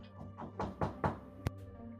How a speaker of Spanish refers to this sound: Y en eso, unos pequeños golpes, eh, no sé si se escuchó, pero ya golpes de tocar la puerta, les tocan en sus habitaciones.